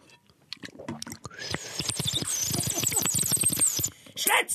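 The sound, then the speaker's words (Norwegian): Wet, sticky mouth sounds: a dense run of rapid clicks, smacks and squelches of saliva, crackling almost continuously and fairly loud, with no talking. “Jeg syns det høres ut som spytt i munn. Det er det det er spytt i munnen.”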